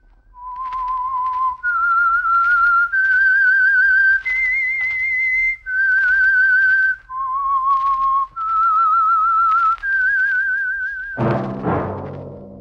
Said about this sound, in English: That whistle is your signal for the Signal Oil program, The Whistler.